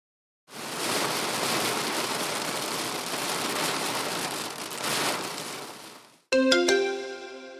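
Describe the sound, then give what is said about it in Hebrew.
Steady rain patters against a glass window, a dense continuous hiss of drops lasting several seconds, followed by a short bright electronic chime. “זה היה גשם הפוגע בחלון זכוכית.”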